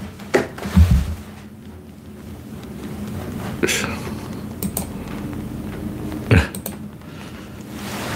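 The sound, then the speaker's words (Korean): Sharp clicks and a few scattered taps of a computer mouse being clicked and keys pressed, in sparse bursts over a low steady background hum, while the mouse is not moving and a window is slow to open. “씨, 또 마우스가 안 움직여.”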